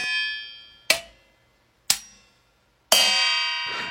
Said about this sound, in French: Il enregistre ses ustensiles de cuisine.